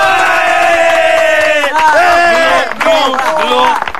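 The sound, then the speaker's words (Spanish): A loud, unruly crowd shouts and yells over one another in a courtroom, many overlapping voices rising and falling in a continuous agitated din with no pauses. “¡Orden y silencio, por favor!”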